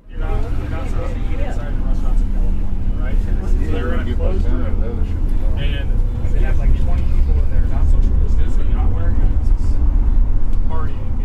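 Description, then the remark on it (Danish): Steady low engine rumble and road noise fill the cabin of a moving bus in Dalton, Georgia, on a winter evening, with several passengers chatting about politics throughout. “Mens vi kører, snakker passagererne politik og deler historier om demokratiske modstandere som guvernøren i Kalifornien, der har holdt store dyre vinfester i sommer, mens hans befolkning var i lockdown.”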